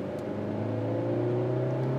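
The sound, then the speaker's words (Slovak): A car engine hums steadily from inside the cabin, its pitch climbing gradually as it revs up, a continuous close drone with no voices over it. “A zo sedla z poliasta ten motor znie lepšie ako zo sedla vodiča.”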